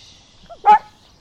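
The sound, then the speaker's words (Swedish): A dog named Tyra lets out a single sharp bark, preceded by a brief faint whine, fairly loud against a quiet background with a light hiss. “Och nu har Tyra börjat eh, ge ljud ifrån sig här också.”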